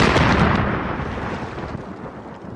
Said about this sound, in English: The explosion shook the park area